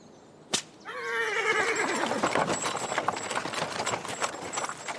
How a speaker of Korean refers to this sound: 우리는 도그 카트에 재빨리 올라탔다. 홈즈는 말을 돌린 후 세차게 채찍을 휘둘러서 쏜살같이 길을 되돌아갔다.